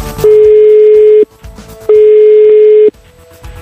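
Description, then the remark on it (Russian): A telephone ringback tone on an outgoing call placed by Russian Radio to a Golden Gramophone award nominee: two long, steady mid-pitched beeps, each about a second, separated by a short pause, loud over a faint background hum. “Но ну, а сейчас давайте звонить еще одной номинантке премии”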